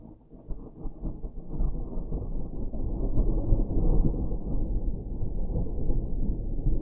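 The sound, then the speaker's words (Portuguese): A thunderstorm: deep, continuous rolling thunder rumbles over a steady wash of rain, building slightly and staying loud throughout with no voices. “hoje parece que o tempo está para chuva. Será que vai chover?”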